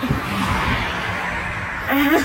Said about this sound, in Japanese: めったに通らない車がめっちゃうるさい。